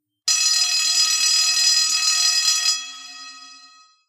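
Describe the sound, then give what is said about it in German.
A loud electric school bell rings continuously for about two and a half seconds at a school, signalling the long break, a harsh metallic clatter, then cuts off and its tone fades away over the next second. “So klingt es, wenn es in der Schule zur großen Pause klingelt.”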